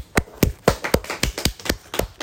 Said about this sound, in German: Ja, Grüße geht raus an an die 60-jährige Person, die unseren Podcast hier so supportet, Dieter Bowen, einen großen Applaus, bitte mal Applaus einblenden.